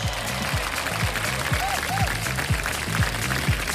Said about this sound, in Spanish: Aplausos.